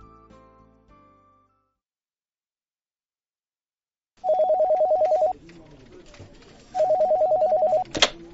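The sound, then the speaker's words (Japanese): In an audio drama, a telephone rings twice in loud, trilling bursts about a second long, separated by a short pause with faint background noise, after a brief musical note at the start; it is answered at the Japasonic planning and development department. “すべては、この電話から始まった。”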